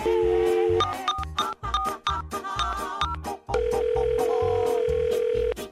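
A phone is dialed to call a family doctor, with a string of short electronic key beeps over a rhythmic backing beat, then a long steady ringing tone holds clear until the end.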